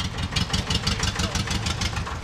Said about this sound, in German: Ein Jahr später an der Büffelweide im Hafen Lortal. Michael Fee fährt mit dem Traktor vor.